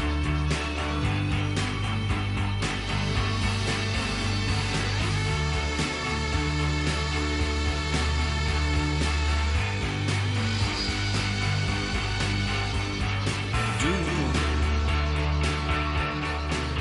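Recorded pop-rock music plays steadily at full level, with a driving bass line, layered guitars and drums keeping a constant beat throughout, and no talking over it.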